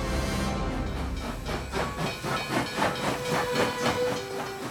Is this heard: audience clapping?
no